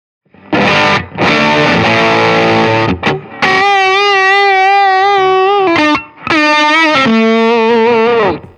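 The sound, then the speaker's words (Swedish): Electric guitar played loud and alone through a warm, rounded fuzz, with a few thick sustained notes and chords, brief pauses between them, and a pitch bend near the end. “Då börjar vi med den första som heter Well-Rounded Fuzz.”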